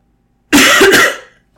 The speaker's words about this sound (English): Welcome to the Coughing Podcast. Un, um, unfiltered, completely unfiltered coughing.